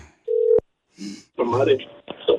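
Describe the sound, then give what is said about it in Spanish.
A telephone being dialed to call a man: a brief steady electronic tone cut off by a sharp click, followed by short bursts of muffled, voice-like sound from the phone line. “Ponle mute a tu teléfono para que no escuche. Sí, está bien. Ok, márcale.”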